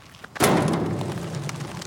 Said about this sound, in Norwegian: Han går med sinte steg gjennom grusvegen. Han stopper opp og sparker mot ei grønn søppelbytte som står langs vegen.